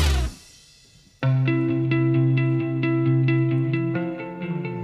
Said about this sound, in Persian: این موسیقی به ما میگه که باید سری بزنیم به فضای مجازی